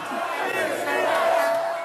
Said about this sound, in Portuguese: Diante dele, os manifestantes exibiam mais faixas parecidas, pedindo intervenção militar, o que fere a Constituição foi possível escutar gritos de defensores do AI-5.